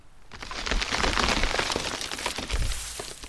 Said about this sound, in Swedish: Jag kunde direkt förstå vad det var för ljud. Ett stort träd måste ha ramlat omkull i stormen.